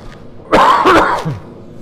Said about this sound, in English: Excuse you.